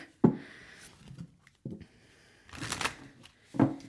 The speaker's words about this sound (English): I think part of the reason why I love tarot so much is because I can nervously shuffle cards.